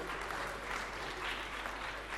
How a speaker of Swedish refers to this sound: jag ser vilka det är som applåderar nu. Det är inte kvinnorna.